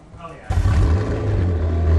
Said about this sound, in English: It's a 625 horsepower V8 twin turbo engine. Uh, it's incredibly fast.